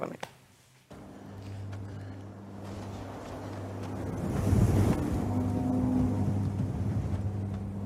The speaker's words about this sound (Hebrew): אתה שומע? הרוח נכנסת לחלילים, והחללים מנגנים, והכל נולד מזה שהיה פה צינור, ופתאום אני שומע מישהו שורק, אבל לא שריקה אנושית.